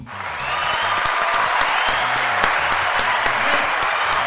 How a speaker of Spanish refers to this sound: Así que un aplauso para el hombre.